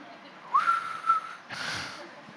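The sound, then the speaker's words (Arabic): A single short whistle from a person, rising briefly and then holding a steady note for under a second, followed by a breathy hiss. “كان جواه مشاعره يعني كان بيصفر”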